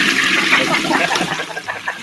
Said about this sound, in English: We had a toilet flush ready for that.